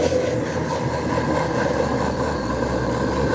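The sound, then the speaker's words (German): An electric blender, held by hand, grinds steadily through thick, tough jam, a loud, continuous whirring drone with a slightly strained, rumbling tone and no voices. “ist für den Mixer jetzt harte Arbeit.”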